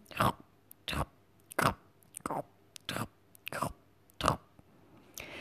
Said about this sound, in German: Am nächsten Morgen legt der kleine Igel entschlossen seine kuschelige rote Kappe an und stapft bei herrlichem Sonnenschein in die weiße Winterlandschaft raus. Bei jedem Schritt knirscht der Schnee unter seinen Pfötchen.